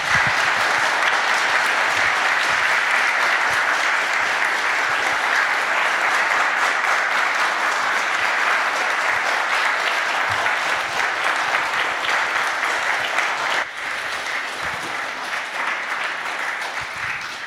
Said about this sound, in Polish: No słuchajcie, chyba zaczniemy tak jak na festiwalach filmowych liczyć długość braw. Tego jeszcze nie było na premierze pisma Lubię to.